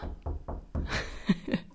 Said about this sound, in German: Ich klopfe auf Holz, warte.